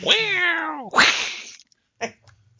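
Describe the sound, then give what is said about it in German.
A tomcat meows twice among several cats in a home, a long drawn-out wail sliding downward followed by a second, rougher cry, then a brief soft chirp-like sound after a short pause. “Ich bin gerade umringt von Katzen.”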